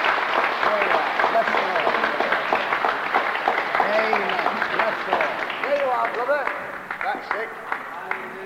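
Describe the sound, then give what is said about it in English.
A church audience applauds steadily for several seconds to welcome a visiting brother from Australia onto the platform, a dense patter of many clapping hands mixed with scattered voices and calls, tapering slightly toward the end. “Give him a clap.”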